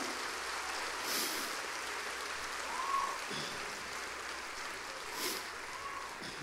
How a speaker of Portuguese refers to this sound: Dê uma salva de palmas para o Senhor.